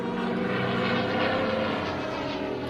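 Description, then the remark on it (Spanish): Steady droning roar of military propeller aircraft engines passing overhead, loud and continuous, with a thick low rumble and no voices; the planes are bombing a town. “Los aviones fascistas bombardean la villa de hora en hora.”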